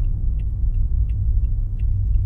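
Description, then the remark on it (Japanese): A steady, heavy low-frequency rumble of a car interior while driving and making a U-turn without changing lanes, with faint, regular ticking clicks repeating about every third of a second, like a turn signal. “俺のこのスキルで博士が今 U ターンを車線変更なしのとこです”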